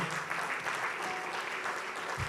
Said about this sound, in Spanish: Junte sus palmas, por favor. Dele fuerte el aplauso al Señor.